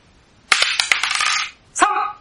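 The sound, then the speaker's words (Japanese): Dice clatter and rattle sharply across a hard surface for about a second, with several quick bright clicks, then a brief second burst of tumbling as they settle, fairly loud; the roll comes up three. “はい、ということで、運命のサイコロタイムです。いきますよはい。”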